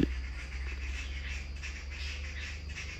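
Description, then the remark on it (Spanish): A steady chorus of birds chirps and trills outdoors beside coffee plantations and banana groves in Veracruz, Mexico, many overlapping calls over a low, constant rumble of wind or background noise. No one speaks. “este espacio, como pueden escuchar, está lleno de aves.”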